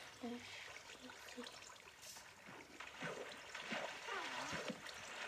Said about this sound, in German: Oh, jetzt ist es ultra viel Wasser.